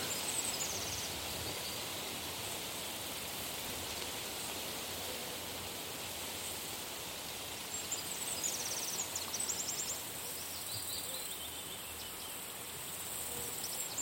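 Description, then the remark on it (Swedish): Wind rustles steadily through tree leaves, a continuous soft hiss with no pauses, and faint high chirps flicker in the background partway through. “Vinden får sakta fram över marken, virvlar upp mellan trädens blad.”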